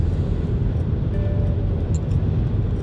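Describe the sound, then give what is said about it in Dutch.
Steady low rumble inside a large car while driving, a dense, constant drone concentrated in the bass with faint tonal hums, continuous and fairly loud, no talking. “En toch vind ik zo'n bak van een auto, wat ik, wat ik nu heb, toch ook wel lekker.”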